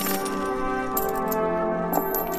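A handful of bright metallic clinks of gold coins dropping down a chimney and tinkling, in scattered bursts over a steady, sustained musical tone with no voices.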